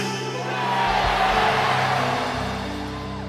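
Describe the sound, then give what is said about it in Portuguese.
A large audience shouts their own names all at once after a count of three, many voices overlapping into one loud, indistinct roar that swells quickly, holds for a few seconds, then gradually trails off. “Quando eu contar até três, grita teu nome, se você lembrar.”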